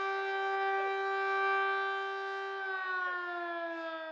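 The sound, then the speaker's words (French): A fire brigade siren, sounded at 8 o'clock in remembrance of a disaster, wails steadily, a sustained harmonic tone holding its pitch with a slight shift partway through, loud and continuous for the whole stretch with no voices. “Chaque 8 mètres à 8 heures, on entend la sirène des pompiers.”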